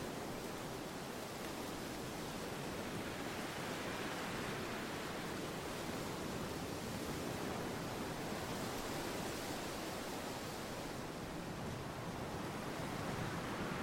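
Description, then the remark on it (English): Wind rushes steadily through trees overlooking a bay in a dense, continuous roar that swells and eases in great surges with brief, consistent pauses between, with no voices present. “In great surges, the wind seems to smash through the trees behind you. With only brief but consistent pauses between each.”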